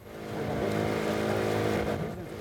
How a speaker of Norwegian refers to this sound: Den lille båten farer over vannet og blir møtt av både voksne og barn når den legger til på en strand.